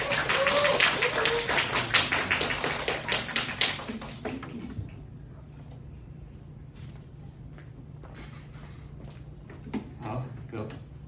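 A church audience applauds in a dense, crackling burst of many hands for about four seconds, warmly welcoming a church brother who is about to share his testimony. Then the clapping fades out, leaving low background hum with a few scattered taps.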